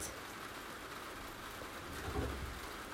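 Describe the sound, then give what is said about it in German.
Steady rain falls on a terrace, a continuous soft hiss spread across the spectrum with a slight swell near the end, no voices present. “Und ich sitze auf meiner Terrasse. Es regnet.”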